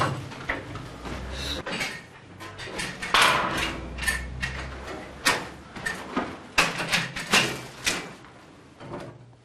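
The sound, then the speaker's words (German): Repeated sharp knocks and scraping thuds of a hammer chipping out old leftover plaster in an old farmhouse being converted into a community centre, making room for replacement stucco pieces; irregular strikes with crumbling debris and a low background hum. “Anton schlägt alten Restputz heraus und schafft so ausreichend Platz für die mitgebrachten Ersatzstücke”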